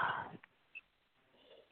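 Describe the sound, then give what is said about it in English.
A quiet, breathy yawn fades out in the first moments, followed by near silence with a few faint clicks and soft breaths. “I think I was tuning into what was that I'm tuning into that make me yawn.”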